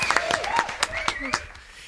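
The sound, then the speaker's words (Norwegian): A few quick, scattered claps ring out, irregular and fairly loud, mixed with excited whooping and laughing voices for a couple of seconds. “Applaus for oss!”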